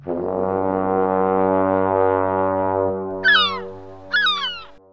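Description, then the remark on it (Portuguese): A boat horn gives one long, loud, steady low blast for about three seconds, followed by two short rising-and-falling meow-like cries. No one speaks. “saiu boiando de bruços até chegar a uma barca que buzinava.”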